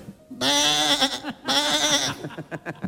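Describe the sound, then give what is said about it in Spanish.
A human voice imitates a sheep, giving two long, wavering bleats in quick succession, loud, followed by a few short choppy vocal bursts. “Mira, vamos a ver la oveja.”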